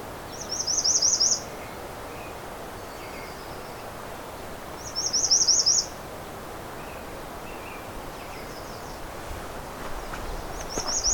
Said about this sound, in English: This may be one of the loudest redstarts I've ever come across. American goldfinch going around.